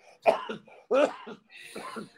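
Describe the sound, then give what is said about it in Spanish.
A person imitates a harsh, phlegmy smoker's cough: three rough hacking bursts in quick succession, fairly loud, the last one raspier and more drawn out. “Te levanta una tos que ya está así.”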